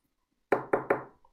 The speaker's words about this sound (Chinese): 哒哒哒，有人敲玻璃。